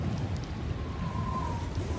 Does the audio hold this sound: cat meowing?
no